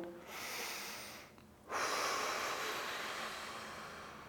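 A deep breath: a long airy inhale drawn through the nose, a brief pause, then a fuller, louder exhale rushing out through the mouth, with no talking; a belly-breathing exercise.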